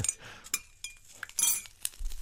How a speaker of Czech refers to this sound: jo, takhle si budu sypat cukr a tak dále.